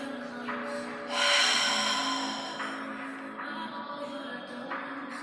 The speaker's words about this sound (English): And just continue to do that breathing over and over again to a rhythm that's comfortable for you. Bringing the air that you breathe into the lower belly